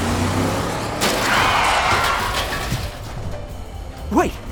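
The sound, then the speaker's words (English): A car takes a heavy jolt as a pursuing vehicle rams it, trying to knock it off the road: a sudden crunching impact over a steady engine roar and road rumble, followed by a sharp rising squeal near the end. “They're trying to knock us off the road!”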